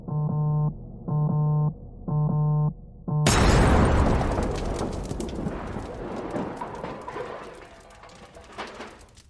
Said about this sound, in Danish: Den kraftige eksplosion gav genlyd.